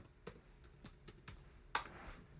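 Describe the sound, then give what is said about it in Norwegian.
Several quick, crisp keystrokes on a computer keyboard as the word "galvanisere" is typed in, irregular in rhythm with one slightly louder clack near the end, fairly quiet, with no talking. “hørte dere at jeg slo inn galvanisere?”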